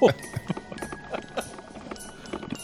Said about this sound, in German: Wir hören jetzt noch danach das Weihnachtsintro einfach. Warum auch nicht? Weißt du, ich habe jetzt einmal schon drauf gedrückt, jetzt lasse ich es auch einmal auf.